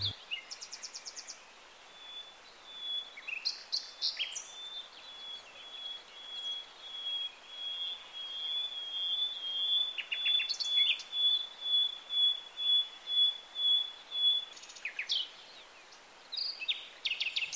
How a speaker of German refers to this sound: Nachtigallenmännchen blähen nicht nur die stolze Brust. Sie schmettern im Brustton der Überzeugung los, um Weibchen zu beeindrucken oder Konkurrenten zu verscheuchen.